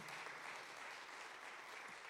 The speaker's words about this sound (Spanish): ¿Alguien le puede dar un aplauso al Señor este día? Fuerte, fuerte, fuerte al Señor.